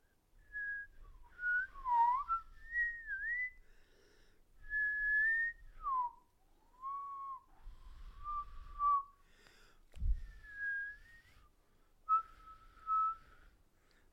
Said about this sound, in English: Oh, earlier today I was uh, whistling in a uh, dual two tones at one time. Oh yeah. I'm gonna try to do it right now.